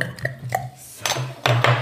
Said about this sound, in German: Sind zwei Biere gewesen. Das ist, lässt sich sehr schön einschenken.